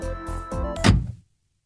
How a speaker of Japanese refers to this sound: そう私が何でこうやってラジオで喋ってるかってタクシーのドアが開いていたからなんです